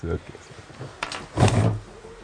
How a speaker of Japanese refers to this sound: ちょっと鼻かんでもいいか